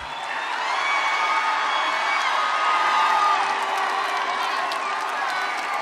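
A large audience applauding and cheering in a steady, dense wash of noise lasting several seconds, with no clear individual voices standing out.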